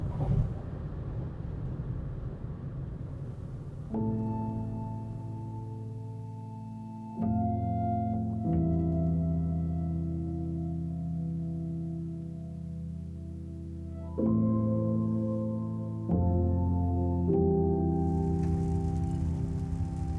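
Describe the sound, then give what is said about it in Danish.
A car drives steadily back across the Øresund Bridge, with a constant low road rumble and a humming engine drone that shifts pitch in a few distinct steps. No one speaks. “Jeg kører tilbage over Øresundsbroen og fortsætter på tværs af Danmark.”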